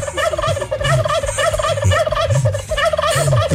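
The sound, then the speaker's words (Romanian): A large flock of turkeys gobbles together in a dense, continuous chorus, reacting in unison to someone talking to them, the rapid warbling calls overlapping loudly with no pauses for the whole stretch. “Mi-l imaginam pe Hitler, cum ar fost Hitler să spună ceva și să-i răspundă sute de mii de curcani la, la unison.”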